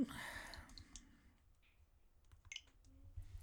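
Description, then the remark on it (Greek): Short, crisp Nintendo Switch menu clicks while navigating to the Redownload Software menu, a few scattered taps spaced irregularly after a brief hissy burst at the start, fairly quiet over a low background hum with no talking. “και πάμε λίγο στο Redownload Software να δω αν έχω και τίποτα άλλο ακούτε και τον χαρακτηριστικό ήχο”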